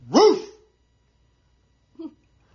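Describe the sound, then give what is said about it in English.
A person lets out one loud imitation of a dog's bark at their dog, followed after a pause by a brief, faint yelp-like sound, then quiet. “I have a conglomeration of videos that I just came across from TikTok of people barking at their dogs”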